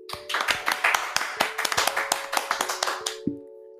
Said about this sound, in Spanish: El día de hoy tenemos una invitada muy especial, pero ya saben antes, un fuerte aplauso.